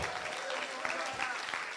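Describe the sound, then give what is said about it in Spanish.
An audience claps loudly and steadily, a dense, continuous wash of many hands with sharper individual claps popping out, sustained through the whole stretch without letting up. “Sigue aplaudiendo fuerte, sigue aplaudiendo fuerte.”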